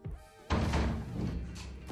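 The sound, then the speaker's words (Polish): A house door is pushed open and then shuts with a heavy thud, followed by a brief rumbling, shuffling noise as it settles. “No i wyobraź sobie, że wracasz do tego domu, wracasz do domu, no i otwierają się drzwi.”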